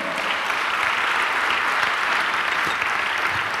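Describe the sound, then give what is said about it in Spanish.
An audience applauds for the Lord in a steady, dense wash of clapping that stays loud and even throughout, with no voices standing out above it. “Denle un aplauso al Señor.”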